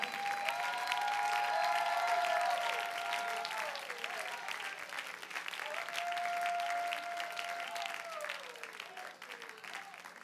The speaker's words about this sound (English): Would you clap your hands to Him one more time and shout unto God with a voice of triumph?